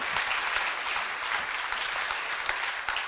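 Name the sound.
applause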